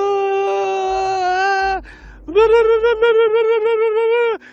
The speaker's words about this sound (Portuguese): E quando chega lá, já havia carpideiras profissionais chorando à volta, fazendo aquele choro do luto.